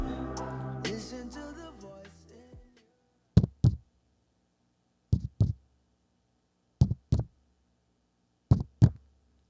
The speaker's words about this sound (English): could hear her heart beating louder than it ever had.